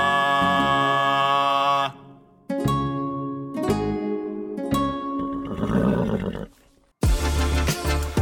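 A series of loud, shrill horse neighs and whinnies, several drawn-out calls with brief pauses between them and no talking.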